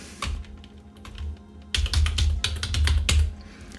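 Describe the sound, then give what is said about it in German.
Keyboard typing on a computer: a few scattered clicks, a short pause, then a quick burst of rapid keystrokes typing the word "Buchstaben" into a website, crisp and fairly loud with no one speaking. “ich gehe jetzt hier auf ähm, Sloganizer, nein, auf ja, auf Sloganizer und gebe das Wort Buchstaben ein”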